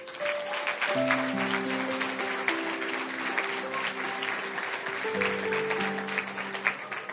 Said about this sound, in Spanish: Dios les bendiga a todos los que están levantando su mano. ¿Qué tal si damos un aplauso para ellos?